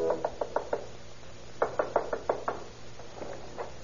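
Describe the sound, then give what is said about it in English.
At night in the little town of Colma near San Francisco, a stranger knocks on a parish priest's door in three quick bursts: five raps, then a louder run of six, then two softer knocks, each a sharp wooden thud with no voices present. “some years ago in the little town of Colma near San Francisco, a stranger stands at the door of a parish priest.”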